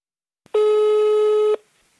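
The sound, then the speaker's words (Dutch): A phone line's ringing tone sounds once as a call is placed to someone: a short click, then a steady, buzzy, loud tone lasting about a second before cutting off. No one speaks. “Dirk, zet de telefoon maar weer aan. Laten we hem bellen.”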